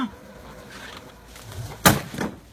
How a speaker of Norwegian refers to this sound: det som skjer, det er jo at eh, elgen, som bare vil spise litt epler fra epletreet og kose seg i en hage Elgen vet ikke hva en robotgressklipper er. Nei. Ja, han ser den komme mot seg og bare Kæ! med foten, og vi kan jo bare høre.